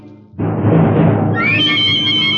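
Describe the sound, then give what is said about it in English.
A horse neighs loud, starting with a rough, breathy burst that rises into a high, quavering whinny held until the sound cuts off. “And on the other side of the road, the gray clad corporal sits astride his horse waiting for you.”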